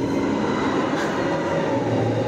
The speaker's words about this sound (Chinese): 现在在上海迪士尼极速光轮的下面，上方不断有尖叫声呼啸而过